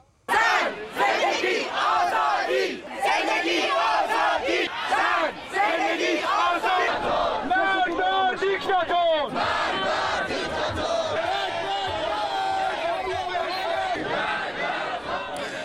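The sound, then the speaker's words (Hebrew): A large crowd of protesters in Berlin, Germany, rallying in solidarity with protesters in Iran, chants slogans in unison such as "Women, Life, Freedom", "Death to the dictator" and "Azadi", loud, with rhythmic shouted phrases repeating steadily over a dense background of many voices for the whole stretch. “אז אה, מה ששמענו כאן, אה, קריאות אה, נשים, חיים, חירות, מוות לדיקטטור, עזדי, פירוש המילה חירות, חופש בפרסית”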